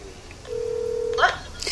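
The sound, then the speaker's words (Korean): A telephone tone sounds once, steady and electronic, for under a second, at the Koryoin center in Gwangju, South Korea, then gives way to a brief muffled voice at moderate volume as the center's head takes work-related calls. “업무 관련 전화를 받느라 바빴습니다.”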